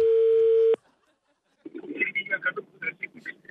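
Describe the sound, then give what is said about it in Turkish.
A single loud, steady telephone ringback tone sounds briefly, then cuts off into a moment of silence before a voice starts talking over the line. “Çalıyor.”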